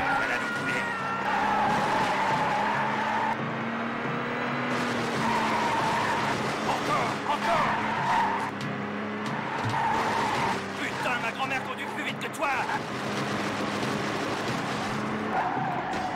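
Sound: car accelerating and skidding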